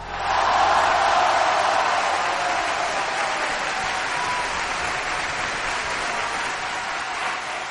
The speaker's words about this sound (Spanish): Pongo todos los botones de aplausos, por favor.